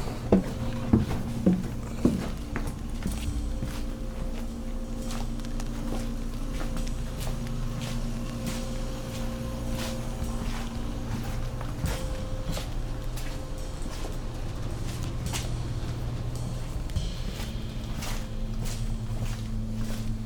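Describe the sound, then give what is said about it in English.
Scattered footsteps of someone walking into a basement scuff and tap over a steady low mechanical hum, a few sharper steps near the start, then softer irregular steps continuing in a droning space. “Walking into the basement.”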